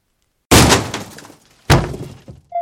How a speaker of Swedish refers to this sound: Han sparkade upp dörren med ett högt larm Men vad gör du? Du kommer ju väcka hela tomtebyn!